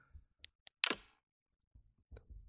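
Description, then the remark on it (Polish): Soft click like a door gently closing: a couple of faint ticks, then a louder muffled clack, followed by low handling rumbles, with no talking. “E, no jakby ktoś tak delikatnie przymknął drzwi.”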